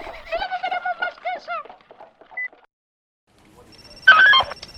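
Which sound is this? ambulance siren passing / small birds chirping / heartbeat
small birds chirping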